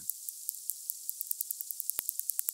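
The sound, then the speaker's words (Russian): A narwhal hunting fish makes a rapid series of sharp underwater clicks, evenly spaced and speeding up slightly, over a steady hiss, with a few louder, fuller clicks near the end; no voices. Recorded by Evgeny Podolsky. “Вы слушаете звуки, которые нарвал издает при охоте на рыб.”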